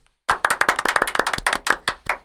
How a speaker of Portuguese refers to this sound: Na liga da NFL de Boteco, eu fui o vencedor. Quero um salve de palmas pra mim.